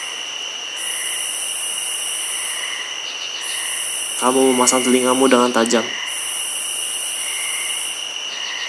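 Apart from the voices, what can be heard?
crickets chirping at night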